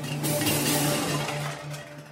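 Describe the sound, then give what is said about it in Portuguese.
In a kitchen, a mother knocks over a pile of pots and pans that crashes to the floor in a sustained, loud metallic clatter and jangle, with ringing tones lingering through about two seconds of continuous banging. “Ashley estava brincando na cozinha quando a sua mãe Rony derrubou uma pilha de panelas e potes”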